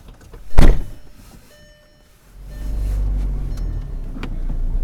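A car door slams shut with a loud thunk as people get into a car, followed by a quiet moment, then a low engine rumble starts and another muffled thump sounds near the end.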